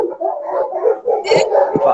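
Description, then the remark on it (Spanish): A dog being walked past a door barks excitedly in quick, overlapping bursts with whiny, howl-like tones, loud, carrying on without pause for the whole moment. “Acá, acá me están pasando un perro por la puerta y se puso como loco.”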